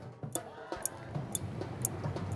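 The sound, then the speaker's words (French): A wall clock above a door in a changing room ticks steadily, five crisp clicks about half a second apart, fairly distinct over a low, murmuring background hum. “Elle regarde l'horloge au-dessus de la porte. Ici aussi, elle semble se moquer. Tic-tac, bientôt ce sera ton tour.”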